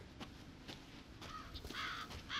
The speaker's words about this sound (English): I hear crows. There's a bunch of crows pecking at what looks to be a corpse of a cow. Hmm. It's five crows. Would you consider that a murder of crows?